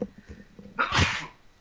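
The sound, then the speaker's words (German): A single sharp sneeze from hay fever bursts out after a brief quiet intake, loud and breathy, then fades quickly. “Gesundheit.”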